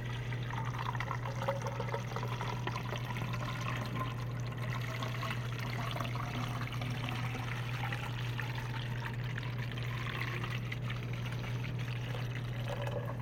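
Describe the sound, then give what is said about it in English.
Blue paint pours steadily over a ball for several seconds, a continuous gurgling splash over a low, constant hum, with no one speaking. “The sun grabbed the blue paint and poured it all over most of uh, the blank ball on her half.”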